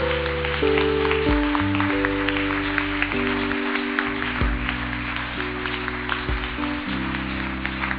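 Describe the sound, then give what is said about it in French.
An audience cheers and applauds, acclaiming the Lord, with steady, dense clapping throughout, while sustained keyboard chords shift underneath the crowd noise. “Tu vas acclamer le Seigneur pour ta vie, pour ta foi.”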